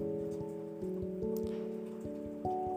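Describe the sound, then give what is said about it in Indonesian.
Steady rain patters down with scattered drips and taps, heard beneath soft, sustained musical tones that shift pitch every second or so. No one speaks. “First of all, gue mau minta maaf dulu Kalau misalnya nanti setelah recordnya jadi Terus kedenger suara hujan Atau ke distract suara-suara lain Karena di sini posisinya lagi hujan”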